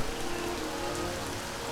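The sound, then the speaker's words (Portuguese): Steady rain falls over a meadow in a dense, even hiss, with fine droplets pattering on a surface throughout. The sound is continuous and moderately loud, with no voices present. “E logo eles estavam cavalgando juntos pela campina, sob a chuva que continuava lá.”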